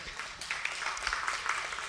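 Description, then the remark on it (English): A crowd claps together, a dense, steady patter of many hands, somewhat quiet, continuing evenly throughout without any voices. “Someone started clapping, and you can clap for that.”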